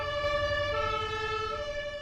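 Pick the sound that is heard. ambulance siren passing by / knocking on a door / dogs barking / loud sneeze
ambulance siren passing by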